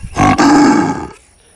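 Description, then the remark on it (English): A brief snort, then a loud, buzzy wheeze forced through a paper towel roll, rough and roar-like, lasting about a second before cutting off into quiet. No talking. “So what you do is you get your paper towel roll. You do a snort and a wheeze.”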